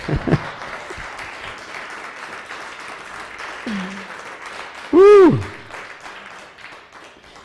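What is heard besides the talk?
audience applause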